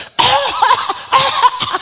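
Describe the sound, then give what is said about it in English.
A voice imitates a cough: a few rough, breathy bursts, one after another with short gaps, loud and unaccompanied by other talk. “Ah, even the thief, right, he would cough like he was stealing and then a cough came and he couldn't hold the cough.”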